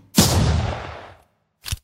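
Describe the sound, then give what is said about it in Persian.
A single loud gunshot with a sharp crack and a booming tail fading over about a second, followed by a brief, fainter burst of noise. “این یکی این یکی هنوز زنگ شلیکش توی گوشمه”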